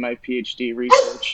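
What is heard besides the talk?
dog barking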